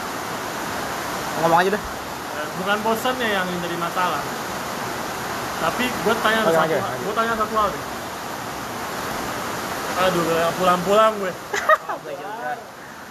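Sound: rain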